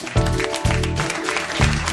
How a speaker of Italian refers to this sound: Applauso.